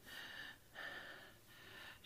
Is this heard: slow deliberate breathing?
yes